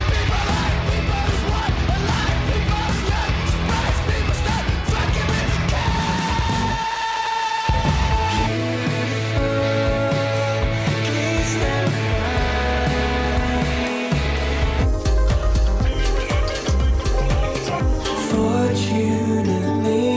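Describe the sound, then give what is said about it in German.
A loud, dense medley of five or six very different song excerpts from one band's album, cutting abruptly between pieces of full-band music every few seconds, with no talking over it. “Und ähm, da hören wir jetzt hier mal einfach aneinandergereiht die, also fünf oder sechs unterschiedlichste Songs von eben diesem Album”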